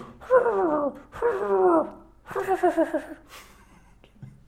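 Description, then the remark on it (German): A person imitates a fox's call with three drawn-out, wavering yelps, the last broken into rapid pulses, followed by a brief low grunt, all fairly loud. “Wie machen eigentlich Füchse? Machen, macht der dann so...”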